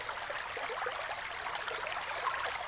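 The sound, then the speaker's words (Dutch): A brook flows steadily, its soft, even babble of water running without pause at a gentle, moderate level, with no voices present. “Het wordt een stromend beekje.”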